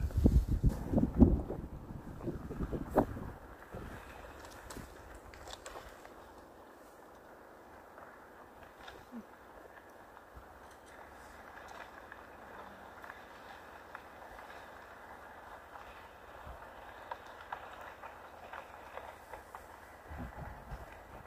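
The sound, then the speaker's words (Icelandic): Ice cracking on a frozen river that is not fully iced over, with some piled ice floes, in about 10–12 degrees of frost: heavy low rumbling and crunching for the first few seconds, then a steady windy hiss with faint scattered creaks and another low groan near the end. “Ég veit ekki hvort ég heyri þetta hljóð en, en það heyri svona eh, klaka hljóð í ísnu.”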